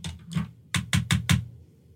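Keys being tapped on a small text-message machine: two soft clicks, then four sharp, evenly spaced taps in quick succession, with no voices.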